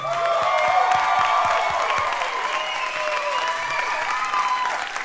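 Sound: audience applause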